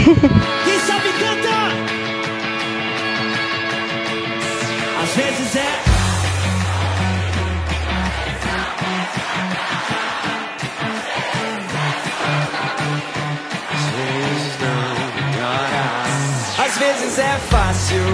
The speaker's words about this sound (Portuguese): Bom, já que estamos aí realmente falando desse ao vivo, então bora de mais um som ao vivo do DVD. Esse é a nossa estreia, então escuta aí.